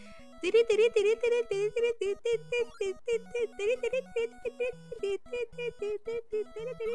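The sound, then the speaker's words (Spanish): A single voice hums from memory a bouncy, fast retro video game tune in short, evenly spaced syllables, imitating chiptune music with a steady rhythm for several seconds. “esa es la música de Antártica Adventure, lo estoy diciendo de memoria”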